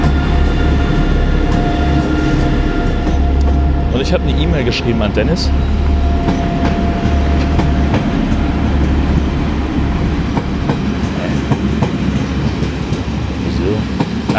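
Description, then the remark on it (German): An empty train, bound for Sylt, pulls out and rolls past, a loud, steady rumble with rhythmic clatter of wheels over the rails throughout, while a man keeps talking over the noise. “Und jetzt fährt der Zug weg, der Leerfahrt von vorhin.”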